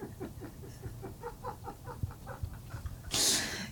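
A terrier plays with a chew toy, throwing it into the air so it hits him on the head, producing a quick rhythmic series of squeaky, clucking pulses, a soft thump, and then a brief loud rustling burst at the end.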